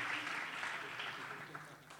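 Steady audience applause, a dense wash of many hands clapping at once that holds fairly loud for the full two seconds before easing off slightly at the end.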